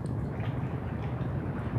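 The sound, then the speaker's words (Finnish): A steady, deep rumble of surf rolls on without pause, a dense low roar with a faint watery churn on top, fairly loud and with no voices. “Meri jymisee.”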